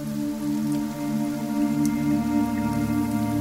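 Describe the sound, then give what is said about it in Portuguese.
Steady rain falls on the ground outside a cave in a continuous, even patter at moderate volume, echoing through the cave, with a low droning hum running underneath throughout and no voices. “O barulho de água tocando o solo ecoa pela caverna, ficando cada vez mais desagradável.”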